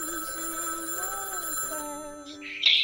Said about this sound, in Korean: 집에 전화가 울리는 거예요. 집에 전화 종소리가 울리는 거예요.